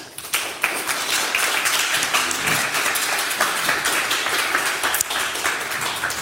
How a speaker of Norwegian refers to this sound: Så gi henne en god klapp.